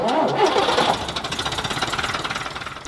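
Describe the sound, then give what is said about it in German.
A bus engine cranks over with a loud, rough burst, then settles into a fast, even diesel chugging that pulses steadily and fades slightly at the end. No one speaks. “Damit dieser Bus auch weiterhin fahren kann, braucht er Geld.”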